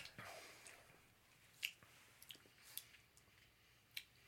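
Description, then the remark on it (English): Quiet chewing of a snack, with a few sharp crunchy clicks and moist squishy bites scattered over several seconds, no talking. “One of the biggest no nos on podding is listening to people drink or eat.”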